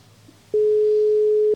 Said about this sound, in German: Pass auf, ähm, ich rufe die jetzt an und ähm, dann gucken wir mal. Es klingelt. Hörst du das?